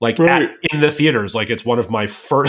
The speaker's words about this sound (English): I don't know what that noise was. I was trying to say right, and I think I half yawned.